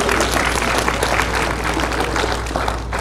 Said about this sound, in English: So thank you, kids. I appreciate your help. Um, yeah, round of applause for the kids. Seriously.